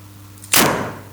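A single sharp pop of a bottle of Augustiner Dampfbier, a dark beer, being opened, a sudden bright burst followed by a short airy hiss that fades quickly, over a low steady hum with no talking.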